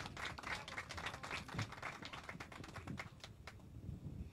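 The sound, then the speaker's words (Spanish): An audience applauds steadily for the staff leading a functionality workshop at a sports centre event, a dense stream of overlapping claps that holds at an even, fairly soft level for the full few seconds, with no voices. “Un fuerte aplauso para cada uno de ellos también.”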